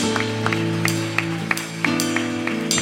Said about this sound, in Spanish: Denle un aplauso al que vive, hermano. Se merece la gloria, mi Dios.